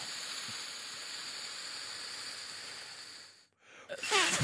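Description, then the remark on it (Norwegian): A person blows steadily into a breathalyzer to measure their blood alcohol level in a daily contest: a long, even hiss of breath that cuts off briefly, then a sharper, louder gusty burst of breath follows. “Du klarte du klarte faen meg ikke å blåse så lenge som du skulle.”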